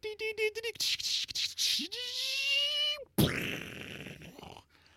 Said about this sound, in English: That was the sound of our ticker tape machine exploding